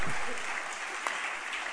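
A crowd breaks into steady applause, a dense, continuous patter of many hands clapping at once, filling the whole stretch at an even, moderate loudness with no voices rising above it.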